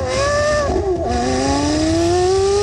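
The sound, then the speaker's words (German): A Ferrari sports car engine revs loudly, its pitch dipping briefly then climbing steadily as it accelerates, a harsh continuous roar with no voices. “Also das ist ein Ferrari, da sind wir uns einig.”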